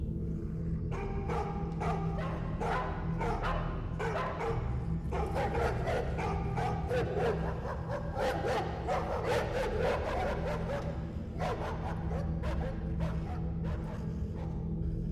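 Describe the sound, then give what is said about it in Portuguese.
Several dogs bark repeatedly in quick, overlapping bursts over a steady low rumble, the barking loud, with occasional yips and whimpers mixed in and no one speaking. “E Júlio, as costas contra a porta, a respiração entrecortada, escuta os latidos.”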